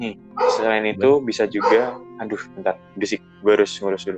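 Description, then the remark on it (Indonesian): The speaker's own dog barks and whimpers in short bursts, tangled up with a man talking over it in a hurried, distracted way. “sorry tadi ada gangguan anjing gue”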